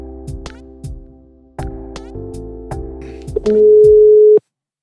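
A steady electronic telephone ringing tone of an outgoing call sounds over a beat-driven backing, ending in one long, loud, unbroken tone that cuts off abruptly. No one speaks.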